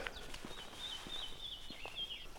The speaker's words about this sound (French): Et ça gazouille.